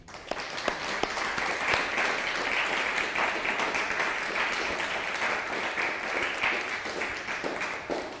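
An audience applauds steadily for several seconds, a dense wash of many hands clapping at an even, fairly loud level with a few sharper individual claps standing out.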